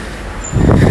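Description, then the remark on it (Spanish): Steady street rumble swells into a louder pass of a car about halfway through, a broad whooshing roar of traffic with no voices over it. “me van a pillar los coches, cabrones,”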